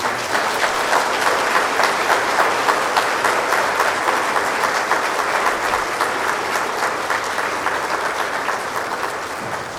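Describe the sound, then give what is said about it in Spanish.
A church audience applauds 33 young people from their community who are going to meet the Pope, dense clapping from many hands filling the space at a fairly loud, even level for the whole stretch, easing only slightly near the end, with no voices rising above it. “lo recibimos con la alegría de un aplauso estos chicos que van a ir.”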